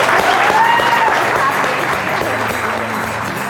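A crowd breaks into a sustained round of applause for a guest whose movie is being shown that night, dense steady clapping that stays loud throughout, with faint cheers and whoops riding on top.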